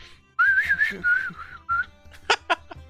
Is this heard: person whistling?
yes